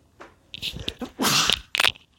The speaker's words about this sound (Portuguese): Nossa, velho, o cara espirrou, meu. Puta, lá miséria. Agora sim que eu que, que quem tava ouvindo saiu, né? Nossa, o cara deu um puta espirro, meu. Nem lembro a última vez que eu espirrei, mas o cara começa a gravar e espirra.